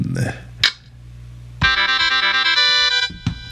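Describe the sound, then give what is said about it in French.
A short, bright synthesized fanfare plays for about a second and a half: loud, buzzy brass-like tones stepping through a quick melodic figure, with brief clicks and a snippet of voice around it. “C'est quoi ça? Fanfare Faut plus jamais que je mette ça.”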